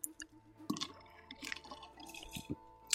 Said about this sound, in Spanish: Déjenme le doy un traguito al agua porque si no luego estoy ahí que entre que se me va el, se me va el aliento y se me, y se me seca la lengua.